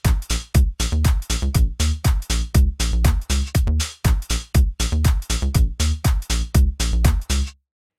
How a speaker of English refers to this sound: So what we have here now is a simple beat and a bass line, which sounds like this.